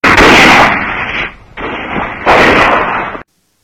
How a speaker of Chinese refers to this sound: 不一会儿，芦花村里砰砰响了几枪，敌人进村了。